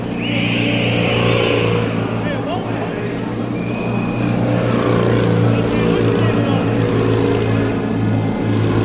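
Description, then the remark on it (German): Motor vehicle engines drone steadily and loudly throughout at a bicycle race, a constant low rumble with idling tones, while indistinct voices and crowd noise mingle in the background. “Pfeifen, Glocken und Motoren, manch einer wird es erkannt haben, für alle anderen aber”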